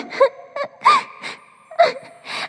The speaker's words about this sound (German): Weinen hilft dir jedenfalls auch nicht weiter.